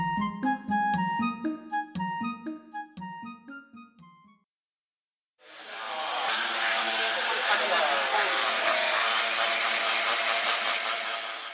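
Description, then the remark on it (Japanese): A short run of musical notes gives way to a brief pause, then a loud electric sander, used by workshop participants to remove dirt and old coating from a wooden deck, starts up and drones with a steady, gritty whir until the end. “これは何でしょうねすごい大きな音が聞こえてますが皆さんどんな作業されてるんですか、はい、今のデッキについた汚れを落とす作業をしていますまあ、基本的にはペーパーサンダーでいいんですけどもあの電動の工具もありますので今それを使って、えー、体験作業をしていただいてます”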